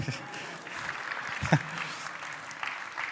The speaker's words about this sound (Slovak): Takže, môžete koniec zatlískať.